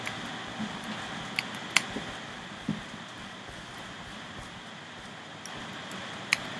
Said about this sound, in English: Okay, I'm gonna take my keyboard cover off for now. I have an orange keyboard cover, and it's kind of hard to play with it on.